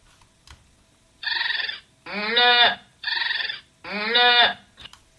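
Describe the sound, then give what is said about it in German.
Four loud farm animal calls in quick alternation, two short buzzy cries and two longer tonal ones, sped up by pressing the Control+3 shortcut during playback so they sound hurried and high-pitched. Nobody talks. “So merkt ihr, dass halt alle Tierstimmen relativ langsam daherkommen.”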